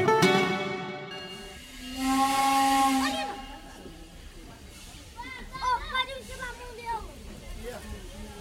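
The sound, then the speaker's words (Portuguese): A steam locomotive's whistle sounds loud, followed by a long hissing burst of steam as the train begins to move at the start of its journey, with a chattering crowd of voices around it afterward. “Você ouviu eu apito da Maria Fumaça e o início da viagem dela, né?”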